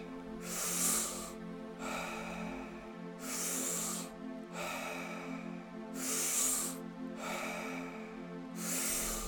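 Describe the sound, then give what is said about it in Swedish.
Deep, rhythmic breathing with forceful inhales and exhales alternating steadily, about five breaths over the span, during the second round of a guided breathing exercise, over a low sustained drone in the background. “Hitta tillbaks till rytmen. Andas in, andas ut.”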